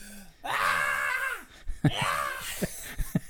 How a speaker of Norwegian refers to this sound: Hvis jeg har sett på film, så er det liksom en som sier sånn eh, Slipp det løs nå, bare skrik. sånn er det.